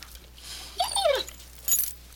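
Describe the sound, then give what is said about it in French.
A dog named Cléo, who refuses to eat and seems increasingly ill, whimpers in a short, high, wavering whine that rises and falls, moderately loud, followed by a brief metallic jingle like keys. “J'aimerais ça t'amener, mais si t'arrêtais de grogner après tout le monde.”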